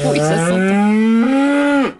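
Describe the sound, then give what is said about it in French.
A single long cow moo, loud, rising slightly in pitch and holding steady before cutting off abruptly near the end, presented as the cow of La Vache qui rit. “Vous avez compris, la, la vache qui rit qui ce matin n'a pas le cœur à rire.”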